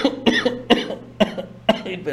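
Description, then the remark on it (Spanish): A fairly loud run of about four sharp coughs spaced roughly half a second apart, with rough throaty voicing filling the gaps between bursts. “¿Estuvo dando alergia o tos?”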